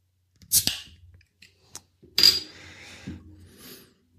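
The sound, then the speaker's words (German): A small 0.3-liter beer bottle with yeast sediment is opened: a sharp metallic click, then a crisp pop of the cap followed by a short, fading fizzy hiss, with no talking. “Ein kleines 0,3 Liter Fläschchen und machen wir es mal auf, oder?”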